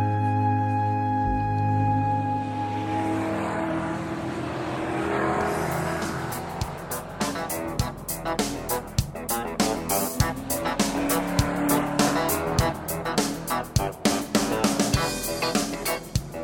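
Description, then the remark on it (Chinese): A race car engine revs hard with rising and falling pitch, punctuated by sharp tire squeals and skidding bursts over the second half; loud throughout, no voices. “这个声音听起来有没有非常的刺激呢？那么接下来我们就要去到法拉利世界”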